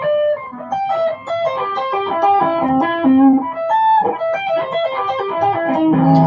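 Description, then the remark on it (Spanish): A fast, flowing electric guitar reciprocal tapping arpeggio, tapping one shape with the left hand and the next inversion with the right hand, with a slightly effected, lightly distorted tone, rippling evenly through rapid notes that climb and fall with a piano-like clarity, played alone without talk. “Si mal no recuerdo, en una revista él le llamaba tapping recíproco hacer esto, ¿no?”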